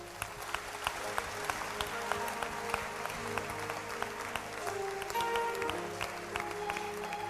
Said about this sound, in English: Stand to your feet. Clap your hands for Jesus.